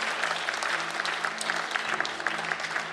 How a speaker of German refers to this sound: So gut. Ja, lass uns Gott recht einen Applaus geben. Cool.